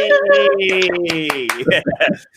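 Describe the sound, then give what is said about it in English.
Quick, steady hand claps for a guest being introduced, a couple of people's worth, ring out under a drawn-out cheering voice, then a few louder scattered claps close it off. “So let's give her a big round of applause.”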